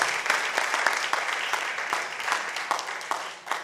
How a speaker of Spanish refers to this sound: ¿Cuántos lo creen? Si lo cree, déle su mejor ofrenda de palmas al Rey de Reyes.